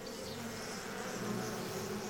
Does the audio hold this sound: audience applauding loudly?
no